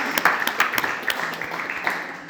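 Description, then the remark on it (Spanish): A small group applauds, with quick overlapping claps forming a steady, moderately loud patter that lasts a couple of seconds. “Un aplauso.”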